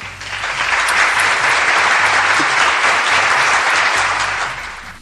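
Sustained applause from a crowd directed at Sony for its PlayStation firmware 3.50 enabling friend connection notifications, a dense steady patter of many hands clapping for about five seconds, loud throughout and easing off slightly at the end, with no talking.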